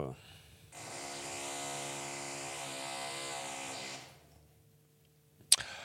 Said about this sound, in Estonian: ja, ja kui inimesed küsivad meile, kas äh, keegi tahab sisse tungida, et puuritakse siin, siis äh, ja vastus on jah, tahab küll.